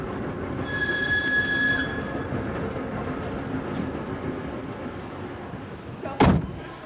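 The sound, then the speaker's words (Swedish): A train with a courier car, travelling directly to Moscow in September 1922, rolls steadily along the rails with a continuous low rumble, a high metallic wheel squeal early on, and a sharp clunk near the end. “Alice ordnar med visum och resa i kurirvagn per tåg direkt till Moskva.”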